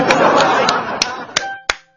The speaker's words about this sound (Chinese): 好，谢谢大家给我的掌声啊！